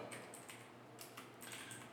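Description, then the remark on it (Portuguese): Quick, uneven clicks of typing on an open computer's keyboard, about half a dozen soft keystrokes in bursts over a low steady hiss, with no one speaking, as someone types while looking at the latest news. “É, vocês vão ouvir meu teclado no fundo aí.”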